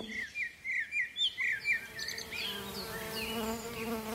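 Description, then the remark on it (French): Bees buzz steadily in a droning hum that swells and holds, with bright bird chirps and tweets repeating in the first couple of seconds. No one speaks. “Pourquoi les abeilles piquent”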